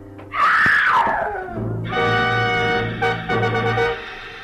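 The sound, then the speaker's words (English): An old woman in a gingham apron screams loudly at a two-story wooden house on a cliff above the ocean, her cry swooping downward, then trailing into a long, wavering, strained wail that lasts several seconds with no talking. “Inside, I found an old woman whom I figured to be my client, leaning against the half open kitchen door, sobbing and clenching at the gingham apron she wore like it would keep her from screaming again.”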